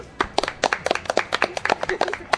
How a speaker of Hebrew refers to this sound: כפיים!